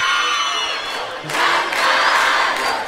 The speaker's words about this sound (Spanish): Y la gente te aplaude.